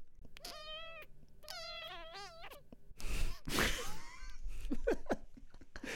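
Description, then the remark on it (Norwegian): A person imitates a kitten with two high, wavering meows in quick succession, clear, followed by breathy noises and what sounds like laughter. “Ok, hør nå. Dette er en kattunge.”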